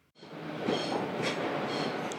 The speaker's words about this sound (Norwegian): Et tog ruller inn på stasjonen i Worcester.